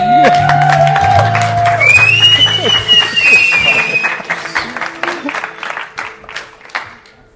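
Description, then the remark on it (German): A church audience crowd breaks into loud, dense applause welcoming a speaker, with cheering and high whoops and whistles over the clapping, which gradually thins out and fades toward the end. “Fangen wir nochmal mit einem richtigen Connect Use Applaus.”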